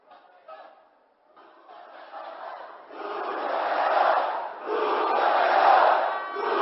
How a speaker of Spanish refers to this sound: Escucha la gente que estaba dentro del Congreso gritar Lucho traidor, ¿no?